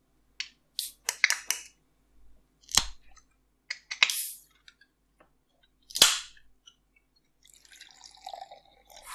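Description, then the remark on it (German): A drink can being opened: a run of sharp metallic clicks and two louder cracking pops, followed by a soft, crackly fizzing hiss at the end. No talking. “Machen wir es mal auf.”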